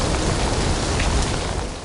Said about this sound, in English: A storm rages outside, shaking the rundown share house. Rain pounds the roof